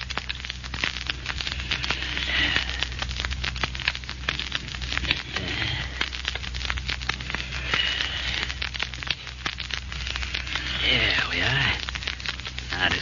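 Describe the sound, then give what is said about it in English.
Steady scratching and crackling of the diamond of a ring scoring a factory window pane during a break-in, with a rapid stream of tiny clicks and a few light taps, running without pause. “Take my ring and use the diamond on that window pane.”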